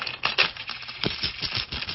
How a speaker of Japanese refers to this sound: これがね、あの、袋の中でジャラジャラジャラってするときに、紙のチップでは得られない